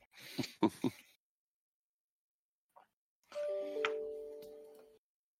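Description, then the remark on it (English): A few quick clicks, then after a pause a Microsoft Outlook email notification chime sounds alone at work: a soft, layered electronic tone that rings steadily for about a second and a half before cutting off. “outlook going off, especially when I'm at work.”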